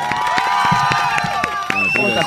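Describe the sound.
Studio audience applause for the day's invited guest, with steady clapping, mixed with cheering voices and a high whistle-like tone, holding at an even, fairly loud level for a couple of seconds.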